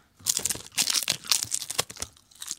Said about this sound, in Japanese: ええー、またこのね、ポッドキャストで今、海苔の音をお聞きの皆さん、これは食べたくなると思いますよ